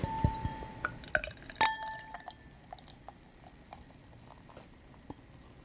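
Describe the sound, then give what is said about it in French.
A drink is poured into a glass, forming foam: opening clinks and a bright glassy ring, then a steady bubbling, fizzing trickle that fades slowly over several seconds. No voices. “Alors, je vais la verser. Bon, je sais pas si ça va faire beaucoup de bruit.”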